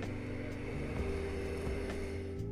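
A motorcycle engine drones steadily on a main road beside a house, its low rumbling pitch shifting a few times as it runs, with no voices over it.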